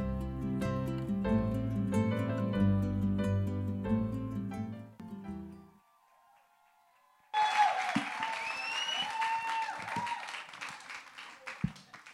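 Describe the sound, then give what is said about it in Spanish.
Swelling organ-like music fades into a brief hush, then an audience bursts into loud, sustained applause for several seconds, with cheering voices rising above the dense clapping. “Si usted nos está visitando, están aplaudiendo porque hace cerca de dos meses no estaba aquí.”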